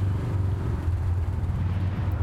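A garbage truck arrives, its heavy engine rumbling steadily, a deep droning hum with a low throbbing pulse that stays loud and constant throughout, with no voices over it.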